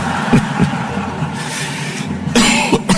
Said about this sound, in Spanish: Así que dispensarán es un poco la tos y, el y el y la voz.